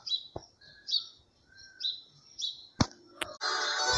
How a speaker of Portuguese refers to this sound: Mas o pardal ainda está a cantar.